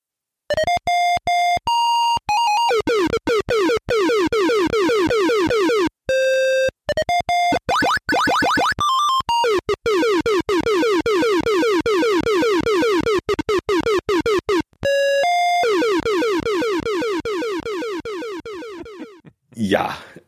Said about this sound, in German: Er muss immer hin und her springen. Und das ist ganz schön verwirrend. Und ihr könnt ja mal versuchen zu bestimmen, was von den folgenden Piepsgeräuschen jetzt Musik sein soll und was Spielesound.